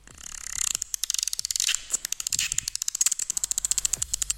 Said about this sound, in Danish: jeg har lige fundet en, øh, en ægte delfin for ligesom at understøtte Masses delfin